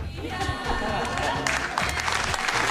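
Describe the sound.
A steady patter of applause from a small group, dense and even, with a voice speaking over the clapping at the start before it fills out and grows a bit louder.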